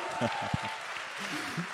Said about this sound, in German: der Applaus ist für dich.